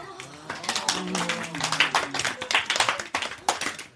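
A school class clapping together after the teacher announces the newly elected class president, a brisk, uneven patter of many hand claps for about four seconds, with some voices faintly underneath during the first half.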